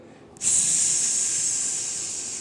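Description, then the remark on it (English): A voice imitates a pressure cooker's hiss: a sudden, loud, steady sharp hiss that starts abruptly and holds for about two seconds, fading slightly toward the end, with no speech. “this is what i see on a physical level i experience my ears make a hissing sound something like that when a pressure cooker goes off”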